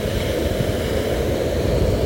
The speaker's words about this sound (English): if you can hear the waves crashing, it is because I am on the beach right now.